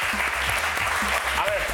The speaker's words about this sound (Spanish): Un aplauso para él.